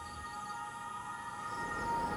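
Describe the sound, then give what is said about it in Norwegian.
Crickets chirp steadily outside a balcony door, a faint, continuous high-pitched trill in an otherwise quiet night, with no voices. “Mens Sirissene holder på med sitt utenfor balkongdøra, sitter jeg og hører på hva det var Vajara egentlig sa.”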